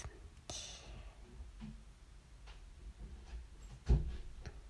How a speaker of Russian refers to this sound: Как же мы без хлопания дверями?